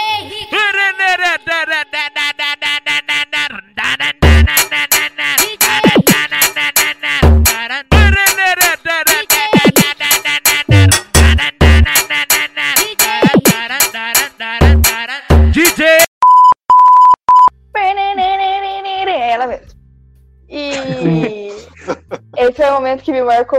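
A loud music track plays with a punchy, steady beat of deep kick hits under a melodic, heavily processed vocal line, briefly cutting to a sustained electronic tone before the song resumes.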